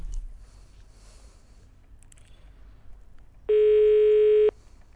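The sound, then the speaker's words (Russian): A single loud telephone ringback tone sounds for about a second as a call is placed to a residential building's management company, a steady electronic buzz over faint background noise; no one picks up and no voices are heard. “Набираем номер телефона управляющей компании, к которой, собственно, по адресу и относится этот самый дом.”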